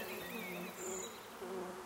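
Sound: bees buzzing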